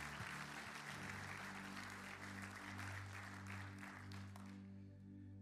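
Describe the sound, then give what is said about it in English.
A roomful of people at a church service applauds the speaker steadily for several seconds, a dense wash of clapping over a sustained low keyboard chord, before the clapping thins out and fades at the end. “One more time, let's express our appreciation to him.”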